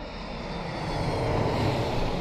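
Airplanes roar low over a house beside El Alto airport in El Alto, Bolivia: a dense, thundering engine rumble that fills the whole clip and swells slightly louder as the plane passes. No voices.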